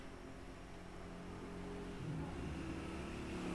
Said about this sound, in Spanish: No sé, algo está haciendo como... Vamos a ver si lo escuchamos o no. Es que es el ventilador prendido, qué tonta.